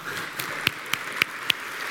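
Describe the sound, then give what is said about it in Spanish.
A single person applauding: four or five sharp, evenly spaced claps over a steady background hiss, with no talking. “Pero hay un aplauso de alguien eh, motivado.”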